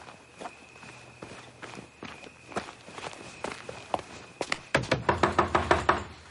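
Footsteps of someone walking toward a house at nightfall, at a steady, even pace, each step a soft thud. Near the end they turn louder and quicker, with heavier, sharper impacts, over a faint steady hum.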